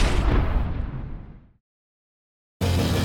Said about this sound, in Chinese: 鸡蛋呢？因为水分含量多，所以不可以放入微波炉里呀，不然不然会爆炸的。